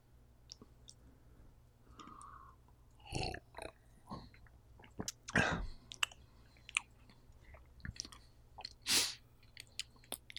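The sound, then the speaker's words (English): Wet mouth sounds of someone sipping a sweet, tea-flavoured drink that had been shaken: a few short slurps and lip smacks, soft clicks and gulping swallows scattered over about ten quiet seconds, with no talking. “I'm going to take a sip now, okay?”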